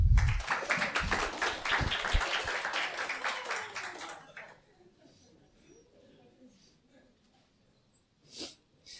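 A crowd applauds with dense, rapid clapping for about four seconds, then it stops abruptly, leaving quiet room noise and a brief sharp burst near the end.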